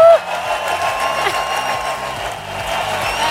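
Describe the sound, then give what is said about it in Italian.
A steady wash of applause and crowd cheering, dense and continuous for a few seconds, fairly loud, like a recorded ovation playing through a speaker at the close of a live show. “no, no, sentiamo le ovazioni da casa.”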